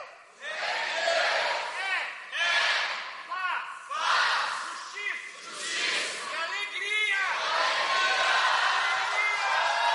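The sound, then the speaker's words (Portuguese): A large crowd shouts "o reino de Deus" together at a preacher's prompt in loud, sustained bursts, many voices merging into a roaring unison chant that swells and breaks repeatedly, energetic throughout. “Vamos comigo, vamos lá, grita, é para gritar, diga assim: o reino de Deus.”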